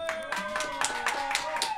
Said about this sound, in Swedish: Jag tycker ni applåderar dåligt ute i studion.